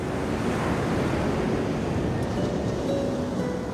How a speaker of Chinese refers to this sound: 格列佛透过窗户看着海面，听着海浪的声音，慢慢睡着了。